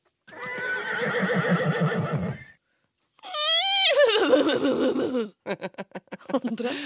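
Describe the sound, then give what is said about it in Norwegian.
A person imitates a horse's neigh in two drawn-out, wavering whinnies separated by a brief pause, followed by a quick series of short, choppy snorting bursts, loud. “Kan ikke du prøve å si I am a horse eh, på hest”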